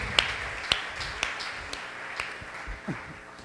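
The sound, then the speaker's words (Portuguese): A crowd claps together in a steady rhythm, about two claps per second, applauding God in the name of Jesus during a prayer, with a diffuse wash of many hands and room noise underneath. “Se você crê nisso, aplauda bem forte a Ele em nome de Jesus.”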